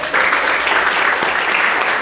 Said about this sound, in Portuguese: Aplauda o Senhor.